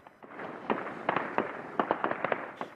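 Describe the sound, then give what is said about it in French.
A rapid, irregular series of sharp explosive bursts from Russian shelling in Irpin, Ukraine, about a dozen cracks and thuds in under three seconds, moderately loud, with no voices. “Quand il y a des explosions, on se met à terre, puis on se relève.”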